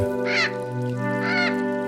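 Two harsh, raspy bird caws ring out about a second apart, each short and fairly loud, over a steady low tonal drone that continues underneath.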